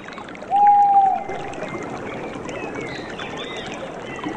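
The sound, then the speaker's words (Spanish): Water flows steadily in a continuous rush in a forest. A brief high whistle rises early on, and faint bird chirps flutter above the water toward the end. “Siente el aire, el bosque, el agua, respira.”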